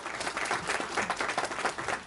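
An audience claps in a steady round of applause, dense overlapping handclaps forming a continuous crackling wash that holds fairly even in loudness for about two seconds.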